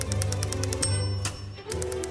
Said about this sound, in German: Die Szene, wo Louis eine emsige Vorzimmerdame imitiert und fleißig in seine Schreibmaschine hackt.